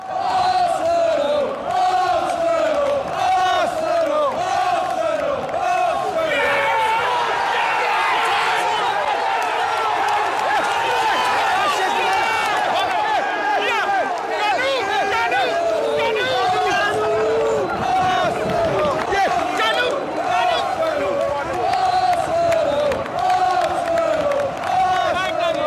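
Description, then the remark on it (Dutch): A huge stadium crowd roars and chants "Canoe" without pause during a match after Canoe scores a goal, thousands of voices shouting together at full volume, the noise swelling in surges and staying loud throughout. “in het stadion echt. Dus tijdens de wedstrijd.”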